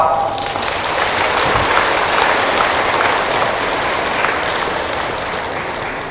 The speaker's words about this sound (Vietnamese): và nếu làm được việc đó đó thì các cháu hãy cam kết bằng cách là dành một tràng vỗ tay thật lớn để nỗ lực phấn đấu